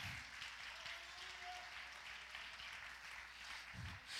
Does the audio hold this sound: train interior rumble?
no